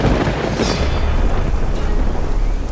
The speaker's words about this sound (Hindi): उस आवाज के इतना कहते ही बिजली कड़की हवा के एक तेज झोंके से खिड़की खुली